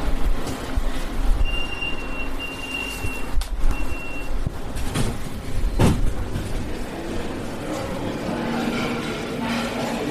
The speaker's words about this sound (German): Aber um das zu erzählen, werde ich jetzt erstmal hier in eine Straßenbahn und wahrscheinlich noch einen Bus springen.